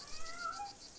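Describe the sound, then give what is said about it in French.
A single short, whiny meow from a pet cat named Pastis, protesting over a meagre food ration, fairly faint and drawn out with a rising then falling pitch, heard alone over a steady background hiss. “Pour couronner le tout, Pastis, c'est mon chat, protestait parce que je lui avais donné comme seule ration un fond de les tourner avec trois croûtes de pain.”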